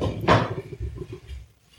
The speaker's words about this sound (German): Warte, ich mach mal kurz die Tür zu.